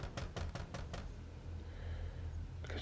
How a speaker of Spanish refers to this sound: Le están tocando la puerta a los neighbors.